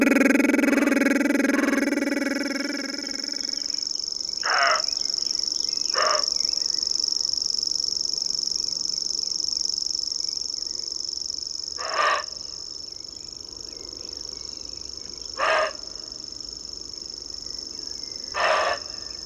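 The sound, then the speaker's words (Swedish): A bird sits in a small bush or tall herbs with its beak pointed upward and wide open and its throat puffed out, its high, buzzing trill ringing on without pause like an electric bell, steady and fairly close, while a few sharp, harsh calls burst out at intervals in the background. “Den sitter i en liten buske eller högört med uppåtriktad vidöppen näbb och med uppblåst strupe när den skälver fram sitt ljud som på nära håll låter som en psykotisk elektrisk ringklocka.”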